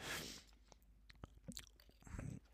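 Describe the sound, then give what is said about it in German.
A quiet sip of cola, taking only a small bit into the mouth: soft wet mouth clicks and smacks, a faint fizzy hiss, and a short slurping burst near the end, with no talking. “Und ich nippe, ich nehme nur so ein ganz bisschen davon in den Mund, ne?”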